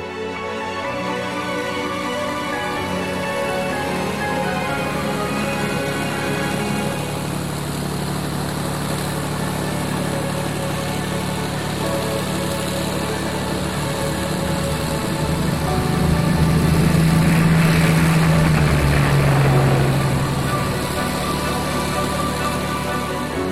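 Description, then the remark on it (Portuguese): A continuous, dense roar of hundreds of aircraft engines passing overhead in the first hour after midnight between 5 and 6 June. It is heard over villages near air bases in southern and central England and swells louder near the end with a deep rising hum, with no voices heard. “a primeira hora depois da meia-noite, entre os dias 5 e 6 de junho, se ouviu o rugido de centenas de motores de aviões numa torrente contínua que pôde ser ouvida sobre os povoados perto das bases aéreas no sul e no centro da Inglaterra.”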